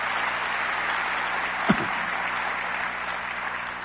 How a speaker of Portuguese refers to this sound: Podem aplaudir o Senhor.